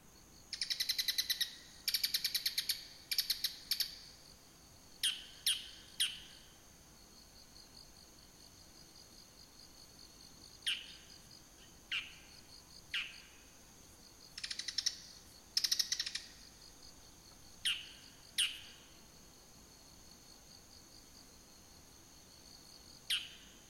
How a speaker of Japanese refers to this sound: はい、聞いていただきました。えー、これがですね、モズです。モズ。はい。でもね、まあ、あの、大きさ的にはスズメと似てますので、はい。